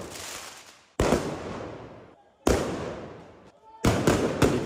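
Loud, sharp firework-like blasts go off in a street in northern Paris around 2:30 a.m. during clashes between rioters and police, four in all, each booming and echoing away into the night, the last two coming in quick succession.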